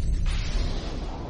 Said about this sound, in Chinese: 轰隆一声，巨大的雷声再次劈下来。这次惊天动地，似乎爆裂了整个宇宙银河系一般，让何红觉得雷声就在他的头顶上